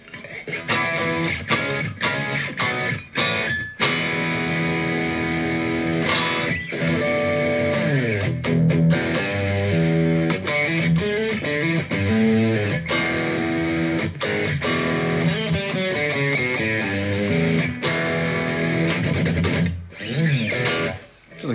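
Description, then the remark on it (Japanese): A heavily distorted electric guitar with a Marshall-style crunch, set with strong distortion and played through new gear sounding from a computer, plays loud riffs and ringing sustained notes, with choppy strummed bursts at the start and end and no talking. “まあ細かいセッティングやってくるもうボックスっぽいでマーシャル歪み強めとかの方がいいかなああ確かにマーシャルっぽい”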